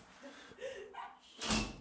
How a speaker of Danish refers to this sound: for at lukket alle dørene.